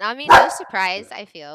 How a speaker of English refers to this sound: Sorry, that's my dog, my doggy Romeo.